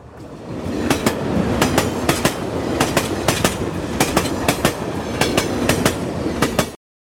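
vehicle, train running on rails

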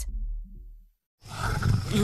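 animal, lion roaring

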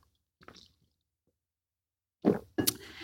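food or drink, sipping water

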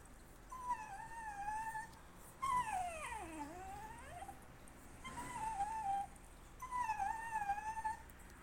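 animal, puppy whimpering

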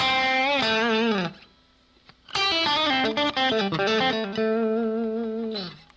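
sound effect, electric guitar played dry

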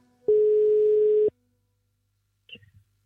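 signal or alarm, telephone ringing tone

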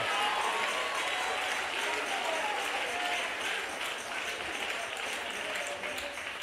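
crowd, audience cheering and applauding

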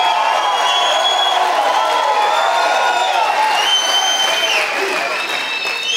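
crowd, crowd roaring and applauding

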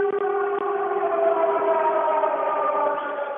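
signal or alarm, air raid siren

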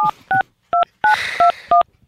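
signal or alarm, telephone keypad dialing tones

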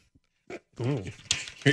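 animal, dog whimpering

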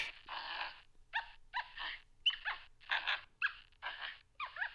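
animal, monkeys calling

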